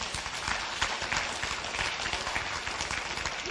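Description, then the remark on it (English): Applause from a church audience giving the Lord a hand: many hands clapping at once in a dense, steady patter that holds at an even level throughout, without any voices rising above it. “Come on, give the Lord a hand.”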